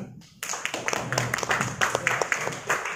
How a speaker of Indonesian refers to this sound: Saya sebelum saya melanjutkan berkata-kata, saya undang yang terhormat kedua narasumber istimewa yang luar biasa pada hari ini. Kita tepuk tangan untuk mereka.